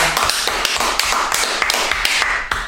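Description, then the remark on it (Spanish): Steady, dense applause with many overlapping claps and sharper individual smacks popping out, holding a fairly even loudness for a few seconds with no voices. “este es oficialmente el primer álbum que graban con … y nos ponemos de pie y un aplauso.”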